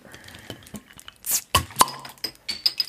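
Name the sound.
glasses clinking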